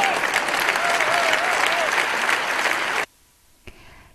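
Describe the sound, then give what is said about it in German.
Loud, dense applause from an audience after a political speech in October 2019, a steady wash of clapping with a faint whistle-like tone gliding through it, then cutting off abruptly into near silence with one brief soft knock. “Ja, da hört er dann viel, viel Applaus natürlich.”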